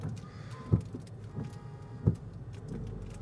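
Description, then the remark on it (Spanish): A car drives along a flooded road, a steady low rumble of engine and tires broken by a few dull thumps and splashes at irregular intervals, heard from inside the vehicle with no talking. “finalmente decidí que era seguro montarme en el carro para ir a ver a mis padres”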